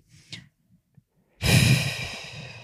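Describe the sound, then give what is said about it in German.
A voice imitates how a man breathes heavily while asleep: a few soft sniffs and breaths, then one long, loud, noisy exhale that slowly trails off. No one speaks. “wenn der dann schon schläft, mhm. habe ich auch massiv Probleme, weil der auch so krass atmet.”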